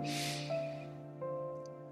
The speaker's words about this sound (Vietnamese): thử nhắm mắt lại nào hít một hơi thật sâu qua mũi